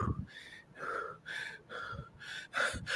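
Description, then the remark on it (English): A person pants heavily as a mock breathing technique, in a quick, steady rhythm of about six loud, breathy bursts, each a forced rasping huff with short gaps between, without speech. “Let me do my breathing technique.”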